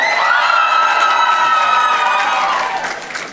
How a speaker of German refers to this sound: Aber ähm, linke Seite macht nochmal so richtig Lärm für die zwei Kandidaten. Eins, zwei, drei.